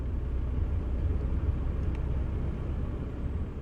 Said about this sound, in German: Wir fahren mit ihr durch den Dschungel. Hier im Auto können wir ungestört reden, hier ist keine Polizei.